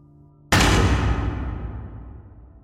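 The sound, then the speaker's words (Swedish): A single loud, sudden slam of a woman's hand violently on a desk, hitting hard and then ringing out in a long, fading rumble. A low hum sits underneath beforehand; no one speaks. “Hon smällde handen våldsamt ner på skrivbordet.”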